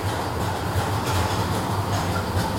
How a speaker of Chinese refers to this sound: 哦，车子来啦！